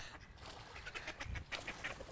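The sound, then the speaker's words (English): Several ducks quack in a busy, overlapping chorus, short nasal calls repeating irregularly over a steady outdoor background, with no talking. “And there's some, some great ducks there.”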